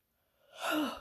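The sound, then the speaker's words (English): A single breathy yawn swells up from silence, airy and voiced with a drawn-out, falling tone before fading at the end. “that's a big old yawn.”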